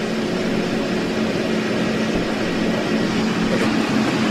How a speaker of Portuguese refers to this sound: até tu pode ver, não sei se de repente afasta um pouquinho aí para diminuir o, o, barulho do maquinário que está trabalhando.